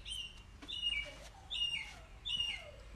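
A bird chirps repeatedly in short, high bursts with descending tweets, moderately loud over a low background hum, with no talking.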